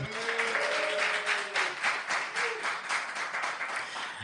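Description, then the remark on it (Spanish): A live audience applauds steadily, a dense wash of many hands clapping at a fairly even loudness, with brief tonal whistles or cheers rising over it early on. “Un aplauso, un aplauso, venga.”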